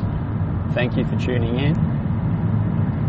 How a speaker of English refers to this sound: If you can hear the audio in the background is a little uh, rough, it's because I'm actually driving back to Adelaide um, with a headset on, just outlaying my thoughts.